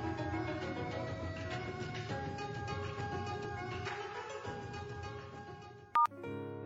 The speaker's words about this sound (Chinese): 直到身上的那部国产山寨手机那响亮的声音不断响起，他才把注意力回了过来。